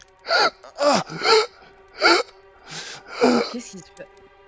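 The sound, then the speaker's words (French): A voice acts out a boy choking, clutching his throat and starting to panic, with a series of strained, gasping bursts and rasping breaths in uneven rhythm, fairly loud, separated by short pauses. “Et tu vois qu'il commence à. Enguerrand commence à, étouffer.”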